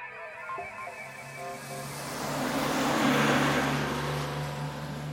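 A city bus engine hums with a steady low drone, then swells into a louder, rushing roar as it pulls away and gathers speed, with no voices.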